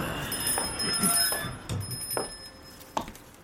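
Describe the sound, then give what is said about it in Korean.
A clothing shop door opens as someone walks in, with a sustained, ringing chime of a door bell, accompanied by a few soft thuds and shuffles, fairly quiet with no one talking. “옷가게 문을 열고 누군가가 들어온다.”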